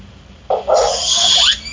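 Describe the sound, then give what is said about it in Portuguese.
A dog lets out a single drawn-out, high-pitched whine lasting over a second, fairly loud, with no talking over it. “Eu ia dar um, um ei pro cachorro.”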